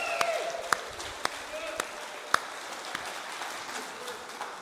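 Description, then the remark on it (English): An audience at a morning church service applauds steadily for several seconds after worship, a dense wash of clapping with a few sharp, louder individual claps standing out and faint voices or cheers mixed in. “Come on, how about a bigger round of applause this morning?”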